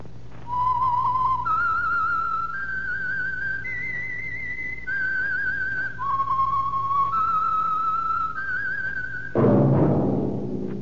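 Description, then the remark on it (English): A clear whistled theme, the signal for the Signal Oil Program, The Whistler, plays alone: a slow melody of long, sustained notes stepping up and down over a low hum, cut off at the end by a sudden loud burst of sound. “That whistle is your signal for the Signal Oil Program, The Whistler.”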